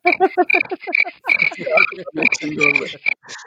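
A cricket chirping sound effect marking an awkward silence: rapid, rhythmic bursts of shrill chirps repeating steadily for a few seconds, fairly loud, with no one talking.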